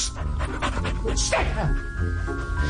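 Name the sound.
dog panting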